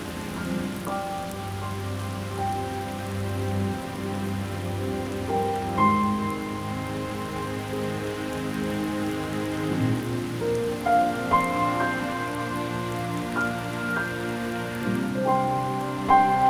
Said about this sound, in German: Ein starker Regen setzt ein.